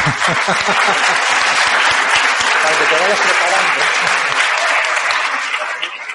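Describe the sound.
Sustained applause from a crowd at a congress, dense steady clapping at an even loud level for several seconds, easing slightly at the end, with a voice speaking briefly over it.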